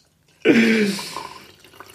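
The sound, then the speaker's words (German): Grog splashes into a glass, starting abruptly with a bright gurgling pour that fades within about half a second, followed by a few soft trickling drips. “Ich gieße mir hier das Mal ein.”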